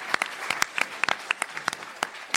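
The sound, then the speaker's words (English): Brief audience applause from what sounds like a small group, applauding Vertigo's 25th anniversary: scattered, irregular sharp claps at moderate volume over a soft hiss, with no talking. “Pause for applause.”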